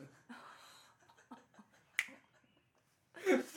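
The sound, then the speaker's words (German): A zipper is pulled open in one quick, raspy burst near the end, fairly loud, after a single sharp click and some quiet rustling. “Geräusch von einem öffnenden Reißverschluss.”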